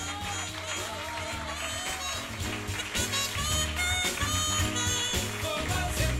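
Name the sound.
audience applause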